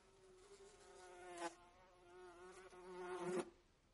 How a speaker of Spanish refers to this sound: Oh, oh señor. Las moscas están en la cara del hombre.